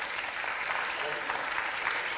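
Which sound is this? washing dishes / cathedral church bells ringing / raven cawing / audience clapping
audience clapping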